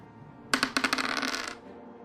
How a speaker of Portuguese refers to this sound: Você não precisa nem, nem fazer rolagem de, de dados, só, só rola uns 2d6 pra mim.